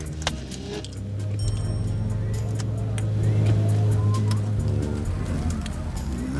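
car driving

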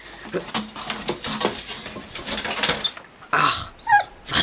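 dogs whimpering

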